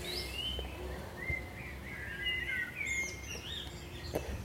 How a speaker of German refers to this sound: Die Vögel schreien uns an.